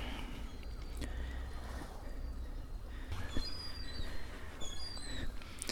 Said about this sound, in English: This is what Mevagissey Harbour sounds like first thing in the morning.